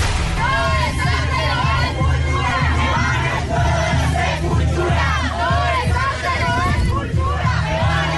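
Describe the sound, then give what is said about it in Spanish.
A large, agitated crowd of animal rights protesters and bullfight supporters clashing outside the Plaza de Toros La Santa María bullring in Bogotá, Colombia, as doors opened around 1 pm on a Sunday. They shout and chant over a dense roar of voices, with overlapping yells rising and falling continuously, loud and tense. “animalistas y taurinos se encontraron en el acto que estuvo suspendido durante cuatro años”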